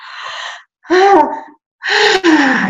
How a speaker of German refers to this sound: gähnen, alles aufreißen und dann hörst du plötzlich auf, der Körper hat voll und dann gehst du auf die Bühne und dann hast du losgelassen und dann lässt du es passieren.